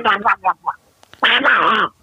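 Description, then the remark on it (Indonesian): A person does a Donald Duck voice impression: a few short, buzzy squawking bursts, a brief pause, then a longer, louder stretch of garbled, nasal duck-like chatter. “Nih, Donald Bebek bisa gak Donald Bebek?”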